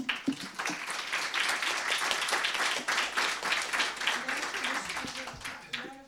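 Steady audience applause for about six seconds for the four participants at the close of a round-table discussion, dense overlapping claps at a fairly loud, even level before tapering off at the end.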